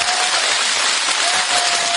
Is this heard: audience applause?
yes